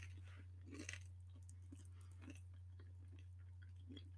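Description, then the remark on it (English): Someone eats crunchy food close to the microphone while recording, with irregular crisp bites and crunches over a steady low electrical hum. No one speaks. “I really shouldn't eat and record.”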